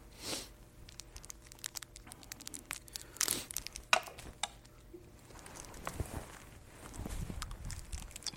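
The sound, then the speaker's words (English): Crinkling and tearing of a small plastic wrapper as a cough drop is unwrapped, with scattered crisp rustles and a few sharper crackles over about eight seconds, no one speaking. “I'm going to go ahead and pop this other uh, cough drop and see if that'll help me get through this.”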